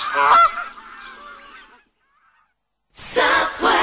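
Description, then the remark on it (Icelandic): Geese honk in a loud, overlapping cluster of nasal calls that trails off into silence, then a second, louder burst of honking erupts. “Allt í gæsaviðina í Vesturöst.”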